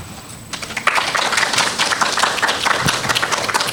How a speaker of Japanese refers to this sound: 城之内中等教育学校高等学校防災クラブの皆さんに今一度大きな拍手をお送りください。